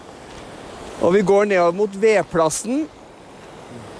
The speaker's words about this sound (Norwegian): Eh, nå, nå går vi her, og hvis dere hører sånn sånt bekkesus i bakgrunnen, så er det akkurat slik det er. Eh, det går en fin bekk eller en elv gjennom leiren.